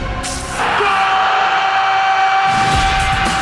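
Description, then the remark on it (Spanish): A loud, drawn-out football goal shout held on one steady pitch for about three seconds, strained, with rougher background noise swelling in toward the end. “Mientras el grito de gol está ahí entre acequia y acequia.”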